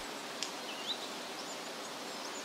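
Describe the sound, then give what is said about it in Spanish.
Forest ambience from a YouTube video found by searching for the word Zen, with a steady, soft rustle of leaves, broken by a couple of brief, faint bird chirps; no one speaks. “Ahora vamos a escuchar bosques.”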